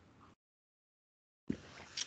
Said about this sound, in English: Sip of the coffee right there.